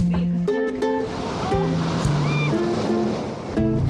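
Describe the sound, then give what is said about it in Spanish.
A steady, rushing roar of sea waves washing onto the shore fills the background, while people talk over it in short bursts. “Mira, ahí está el mar.”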